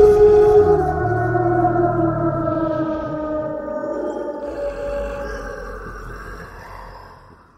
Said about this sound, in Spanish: La criatura desapareció entre las tinieblas, emitiendo un rugido aterrador que se escuchó a kilómetros de distancia.